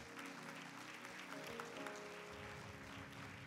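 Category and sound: crowd, audience applause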